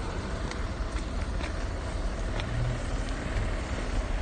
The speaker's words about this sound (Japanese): 買い物が終わりました駐車場に出ました